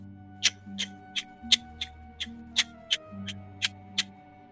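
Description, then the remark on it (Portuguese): Steady timer-like ticking coming from under a car, about a dozen crisp, evenly spaced ticks at a brisk pace, heard over a low, droning hum with no one speaking. “Olha, enquanto vocês estão saindo e indo até o alto de vocês, vocês percebem que quando vocês estão quase chegando você, especificamente, Gilles, escuta um tic-tac.”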